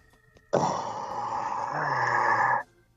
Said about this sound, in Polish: Ale to jakiś reptilian, bo, bo no. tu jakieś oddechy są. Po, po fentanylu, po fentanylu taki zgięty zadzwonił.